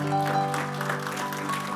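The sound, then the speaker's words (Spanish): A church audience claps steadily for about two seconds, applause given to Christ during a sermon, a dense, even wash of applause with sustained musical tones ringing underneath. “Denle ese aplauso fuerte a Cristo.”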